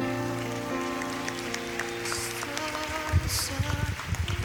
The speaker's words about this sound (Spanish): Den un fuerte aplauso, hermano, al Señor.